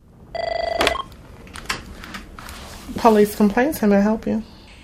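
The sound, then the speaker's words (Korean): A short burst of a trilling electronic telephone ring near the start, loud, as a call is placed to the Indianapolis Police Department's citizen complaint office, followed by a person speaking briefly afterward. “이곳으로 전화를 걸면 되는데요.”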